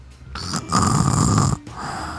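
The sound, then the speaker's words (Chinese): A person imitates loud, pig-like snoring: one long, rough, grunting snore lasting over a second, with a brief quieter breath before and after it. “他们打呼也太大声， 而且比较像猪。”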